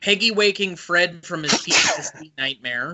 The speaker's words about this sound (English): Bless you. Yep. Sorry, tried to hit the sneeze button. So sorry.